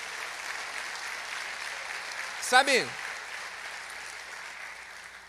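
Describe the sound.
Steady applause from an audience applauding Jesus for a scripture text just read runs through the whole stretch, an even wash of clapping, with a man briefly speaking a single word over it partway through.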